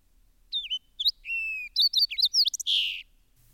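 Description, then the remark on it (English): A fox sparrow sings a rich, varied phrase of clear whistled notes and slurred chirps, rising and falling over about two and a half seconds, bright against a quiet background. “It is a strong, richly modulated whistle the finest sparrow note I have ever heard.”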